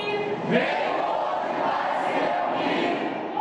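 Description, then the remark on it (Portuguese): Students protest at the arrival of Marcelo Queiroga at the USP Faculty of Medicine, shouting and chanting loudly together, a dense continuous roar of many voices with a few sharper yells rising out of it, sustained throughout. “Barulho na chegada de Marcelo Queiroga. Estudantes protestaram na visita.”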